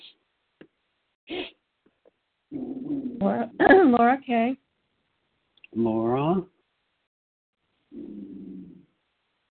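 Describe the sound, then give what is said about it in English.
A dog named Cherry barks a few times in short bursts, mixed in with a person speaking, with brief pauses of quiet between the sounds. “Even Cherry, my dog's barking here.”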